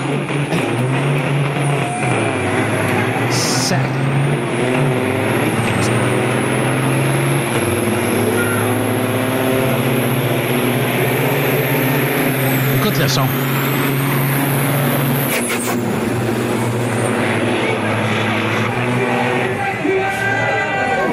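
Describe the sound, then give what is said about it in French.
Loud, continuous roar of two heavy truck engines revving and racing off the start line in a 2015 truck race, with harmonic drones that shift in pitch and high whining tones sweeping across, briefly joined by a voice at the start. “Ben, le pire, c'est que l'organisation s'en euh, s'enligne entre les deux camions pour ce départ-là.”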